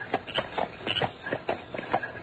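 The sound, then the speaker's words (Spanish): An approaching horse-drawn carriage rolls along, with a steady, even rhythm of hoof clops at a moderate volume, mixed with a rattling, shuffling rumble of wheels and no talking. “¿Qué es eso? Parece un coche.”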